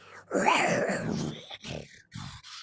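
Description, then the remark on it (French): A loud, rough animal growl lasting about a second, deep and throaty like something between a large dog and a big cat, followed by a few shorter breathy grunts. “Il euh, ils hurlent, c'est pas tellement qu'un jappement plus qu'un gros grognement fort. Peut-être à la jonction entre justement un chien et un fauve.”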